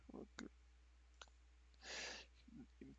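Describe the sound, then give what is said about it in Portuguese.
A couple of soft, sharp, quiet computer mouse clicks, spaced apart amid faint murmured vocal sounds and a brief breathy exhale. “cliquei é errado.”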